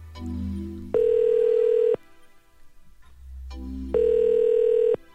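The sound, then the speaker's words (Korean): An unanswered phone call's ringback tone during a radio broadcast calling a listener: two steady, mid-pitched one-second tones separated by a pause of about two seconds, with a low hum underneath and no one picking up. “아, 안받네 이거 어떻게 된 거야, 이게.”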